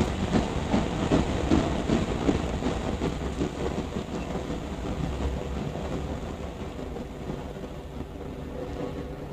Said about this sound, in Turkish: Tren alıp götürüyor bizi. Bozova istasyonu gerilerde kalıyor.